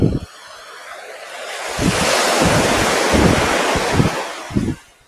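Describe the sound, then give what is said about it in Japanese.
Ocean waves rushing onto the shore at the seaside in Hayama, Japan, in the afternoon, in a steady, broad wash, swelling louder midway and lingering before easing off, with gusty wind buffeting the microphone underneath. “午後の波音とシトラスの風”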